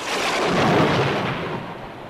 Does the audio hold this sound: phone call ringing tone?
no